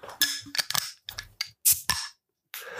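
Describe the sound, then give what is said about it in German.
A beer bottle is pried open with a bottle opener: a series of sharp metallic clicks and clinks, a short pause, then a soft sustained fizz at the end. No one speaks. “wir heute machen müssen, ist unser Bier öffnen. Wenn ich den Let's Öffner go. finde.”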